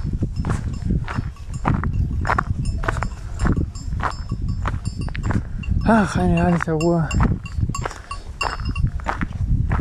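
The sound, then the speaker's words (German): Cowbells clank and clink irregularly on a herd of grazing cows under darkened, overcast weather, with a brief wavering animal call partway through and a person speaking a few words. “Oh, noch eine Kuhglocke.”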